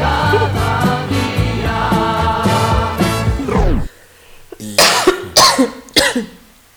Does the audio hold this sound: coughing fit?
yes